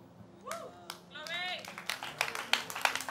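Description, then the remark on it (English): An audience claps in scattered, uneven bursts that grow denser and louder toward the end, mixed with a few vocal exclamations or cheers early on. “You are clapping now because someone has vision, sir.”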